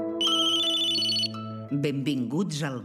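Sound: mobile phone ringtone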